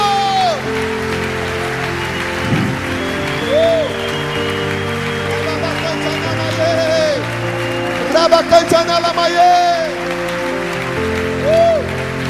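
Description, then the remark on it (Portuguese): A church audience claps steadily for God during worship, a dense wash of applause over sustained keyboard-like music and a voice speaking or singing, with a louder burst of clapping near the end. “Enquanto você aplaude Ele, vai se livrando de todo peso, de todo jugo.”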